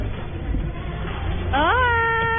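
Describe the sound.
After a low murmur of background noise, a voice lets out a joropo-style grito: a loud, sustained, high-pitched cry that swoops sharply upward, then holds a steady ringing tone to the end.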